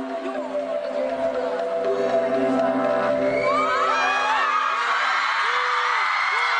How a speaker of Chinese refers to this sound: 果然这版尖叫声好多。